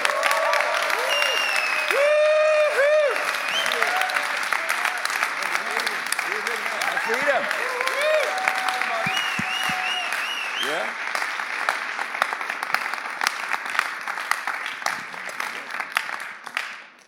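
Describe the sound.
Sustained applause from a large audience welcoming a pastor to the stage, a dense crackling wash of clapping lasting the whole stretch, with cheers and whoops rising over it and voices calling out throughout.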